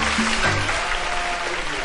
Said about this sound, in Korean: 박수 한번 보내주세요. 감사합니다.